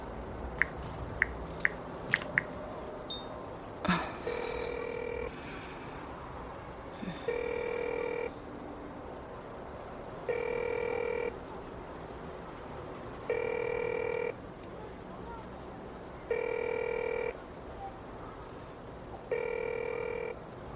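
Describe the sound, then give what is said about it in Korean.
A man calls his son from a roadside facing a hospital among high-rise buildings: a few quick taps of dialing, a click, then a steady ringback tone repeating six times in even bursts with pauses between, clear, with no one answering. “아들에게 전화를 걸었다.”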